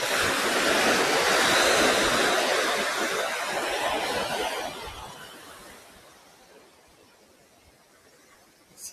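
Ocean waves wash onto the shore at a beach in Hayama, Japan, on a hot, sunny afternoon, in a broad, hissing surge that stays loud for several seconds, then slowly recedes and fades to a quieter, softer rush.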